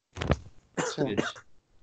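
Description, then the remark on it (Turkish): A short, sharp cough comes first, followed by a voiced, rumbling throat clearing in two quick pushes, fairly loud, with no other talking. “Öksürmeden hemen hızlı hızlı söyleyeyim de.”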